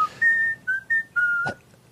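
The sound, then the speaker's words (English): A person whistles a short tune of clear, steady notes, five in quick succession with small pitch changes, fairly loud, followed by a brief soft tap. “I don't think you have enough ten tremolo and you're whistling.”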